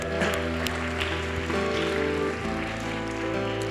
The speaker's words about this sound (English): Please give a clap for all those that gave their life to Jesus?